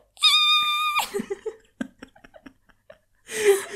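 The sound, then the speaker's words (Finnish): A voice imitates a tiny perch squealing: a shrill, high-pitched held squeal, then some quick breathy sounds and clicks, ending with a short burst of strained, squeaky noise. “Siis joku, joku iso haukehan kuulostaa tämmöistä mutta, sitten jos olisi semmoinen ihan pikkirikkinen ahven, niin se on se”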